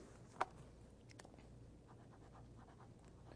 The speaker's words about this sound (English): The fact is, is that when it's all said and done, if I took my, my pen today and I wrote my name on it,